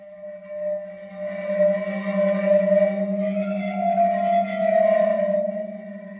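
A sound stone being played gives off a steady, sustained tone with a low hum and layered ringing overtones, swelling gently in loudness over several seconds with no voices present.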